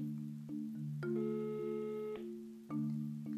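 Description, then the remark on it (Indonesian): A phone ringing tone plays over the line as a call is placed to a shop: steady electronic tones shifting in pitch every second or so, fairly quiet and continuous, with no one speaking. “Nah, ini masih berdering ya.”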